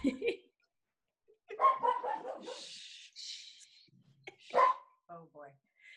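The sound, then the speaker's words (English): A dog barks and yelps in a few irregular bursts, fairly close and moderately loud, with short quiet gaps between the outbursts. “hello, doggy.”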